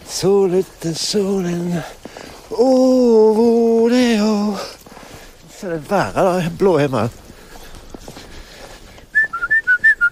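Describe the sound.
A man whistles a brief, bouncy tune of quick, bright notes as he walks, coming right after several seconds of voice with a sung, melodic quality.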